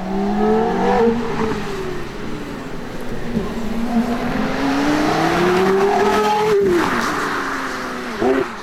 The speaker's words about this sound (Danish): Sådan her kender vi lyden af en sekscylindret Porsche Boxermotor.